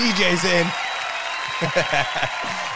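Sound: crowd applause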